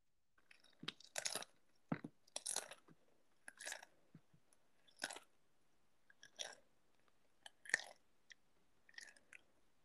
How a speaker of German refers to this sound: Ich habe ja auch noch heute mich ausgestattet, wenn wir jetzt schon Food ASMR machen. Ich habe auch noch Chips dabei.